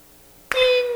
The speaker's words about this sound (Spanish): ahí suena el teléfono de un señor este, inquieto en las, en las comunicaciones, mandando las dosis.